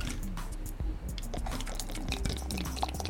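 Liquid pouring steadily into a cup while making milk tea, a continuous soft splashing and trickling with a few small drips, heard alone without any talking.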